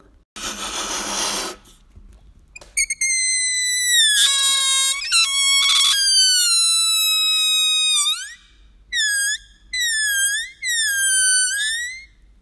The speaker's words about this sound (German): Alles klar, wenn du einen Luftballon aufpustest und an seinem Hals dann so ein bisschen ziehst und dehnst, dann wird der Ton auch höher oder tiefer.